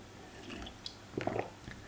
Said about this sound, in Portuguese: Esta água está boa, está. Não, eu é que não sei porque é que estou a beber tanta água.